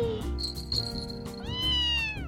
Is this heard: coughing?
no